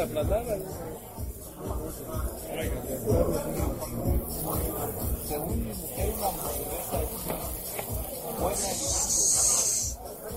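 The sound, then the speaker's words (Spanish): Meat that people are eating sizzles steadily on a hot steel serving plate, a continuous hiss with crackles that runs the whole time beneath people talking. “Ese ruido es el del el plato de acero donde viene la carne que nos estamos comiendo.”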